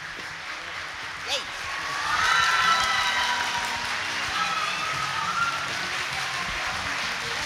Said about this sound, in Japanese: 早速お二人にご登場いただきたいと思います大きな拍手でお出迎えください、えー、松任谷由実さんそして鈴木敏夫プロデューサーです